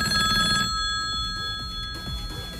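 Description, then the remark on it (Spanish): A telephone rings with a bright, steady electronic bell tone, loud, sustained through the whole moment with no talking over it. “Eh, súbele, el audio del teléfono, veo que está vibrando. El teléfono.”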